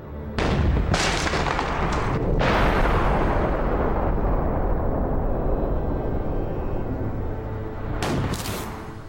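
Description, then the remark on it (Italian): A working model of Archimedes' steam cannon, running on very modest pressure, fires a ball with sharp, loud blasts near the start and again near the end. A long, heavy roaring rush of pressure fills the stretch between them as the pressure breaks a seal and the ball leaves the barrel at high speed. “A quel punto la stecca si rompe per la pressione e la palla può uscire dal fusto ad alta velocità.”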